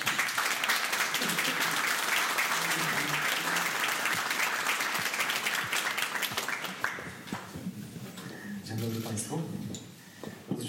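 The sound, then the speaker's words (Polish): An audience bursts into loud, dense applause welcoming MP Krzysztof Tuduj, holding steady for several seconds, then thinning out and fading while voices begin talking over the last scattered claps. “Wielkie brawa!”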